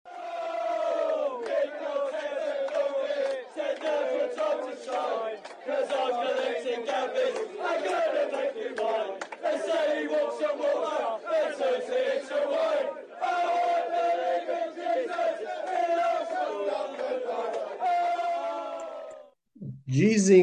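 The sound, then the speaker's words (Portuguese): A large stadium crowd of Arsenal supporters sings a football chant in unison about their striker Gabriel Jesus, loud and sustained with a steady melodic swell, continuing for nearly twenty seconds before cutting off abruptly. “ganhou uma musiquinha ali do, da torcida do Arsenal.”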